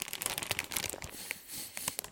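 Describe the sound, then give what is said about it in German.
Crisp crinkling of a plastic bag of Flammkuchen-flavoured chips being carefully pulled open without damage, a dense run of sharp rustles and crackles with a few brief tearing sounds, no voices. “Moment, ich muss gucken, dass ich die Tüte schadfrei aufkriege.”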